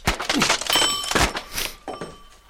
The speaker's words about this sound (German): Dann packt er nämlich die Pistole beim Falldämpfer und haut mit dem Griff BAM auf den Wecker.